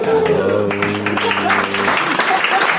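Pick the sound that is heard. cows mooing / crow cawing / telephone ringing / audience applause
audience applause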